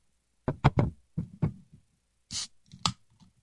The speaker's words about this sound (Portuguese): Esse barulhinho tem o seu valor, né? Vou deixar aqui a latinha. Tá meio aí, tá, o fundo tá, tá amassado ali. Vou abrir a outra agora, Coca-Cola.